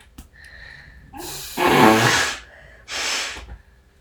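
Someone blows their nose twice: a long, loud, rasping honk that swells midway, then a shorter, slightly softer blow after a brief pause. No one talks.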